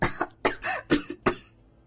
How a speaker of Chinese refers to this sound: 小美装作因为染上风寒而喉咙不舒服的样子，咳嗽起来。